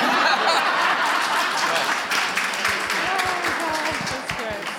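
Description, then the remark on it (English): A group of women bursts into steady, dense applause, many hands clapping at once without a clear rhythm, with scattered voices and a little laughter mixed in beneath it. “So all the women clap.”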